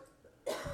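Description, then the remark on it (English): One sneeze: a sudden, loud, breathy burst that breaks out of near silence and hangs on briefly with a rough, noisy rush, with no talking. “Bless you.”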